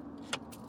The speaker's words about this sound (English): Aside from the faint sound of traffic from the highway